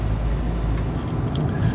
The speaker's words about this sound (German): Ein bisschen hört man das, die Fahrgeräusche ja dann. Und das soll ja auch so sein.